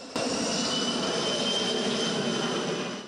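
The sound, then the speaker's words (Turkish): A firefighting aircraft leased from Russia roars steadily overhead while fighting a fire in Kahramanmaraş, a loud, constant engine drone with a high whining edge that holds for the whole stretch and eases off slightly at the end. “Kahramanmaraş'taki yangına da böyle müdahale ediyordu.”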